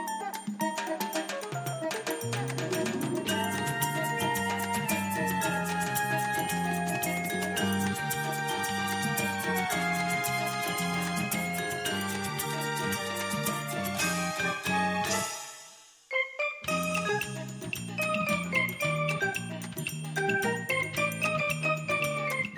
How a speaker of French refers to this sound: c'est une tune qui a été reprise par … et sa guitare